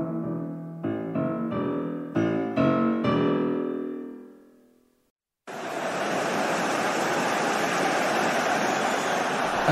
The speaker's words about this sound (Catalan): Aquesta remor és el so d'ambient de l'esport referencial del nostre temps, el futbol. El xiulet de l'àrbitre, els xiulets de la gent, els crits, els cants, aquests sons quotidians que han captivat a molts compositors del país nadiu d'aquest esport